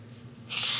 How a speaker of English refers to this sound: you're gonna get the entire podcast sick from just hearing you blow your nose and shit.